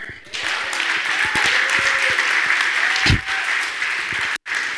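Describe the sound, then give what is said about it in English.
An audience at a church service gives the Lord a hand clap, clapping together in sustained, dense applause, the crowd noise steady and full throughout, with a few scattered shouts mixed in before a brief cut near the end. “Get a Lord a hand clap.”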